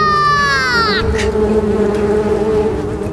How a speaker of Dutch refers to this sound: In het kasteel wachten honderden wespen de nachtwacht op. Ze zwermden rond Svika.